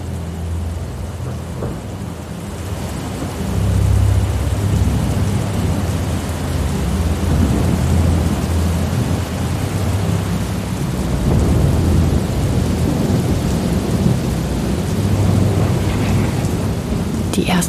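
Rain pours steadily at night while deep, rolling thunder from an approaching thunderstorm rumbles through, swelling louder after a quieter opening and building again later. No voices.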